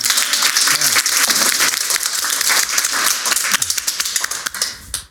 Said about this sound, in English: Applause on that.